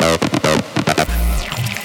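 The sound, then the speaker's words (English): A loud synthesizer being tested bursts in short rhythmic stabs of buzzy, bright chords, then settles into a deep sustained bass tone while a high whistling sweep glides downward. “Testing the synths”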